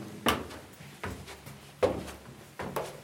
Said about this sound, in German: schließt die Tür seines Weinkellers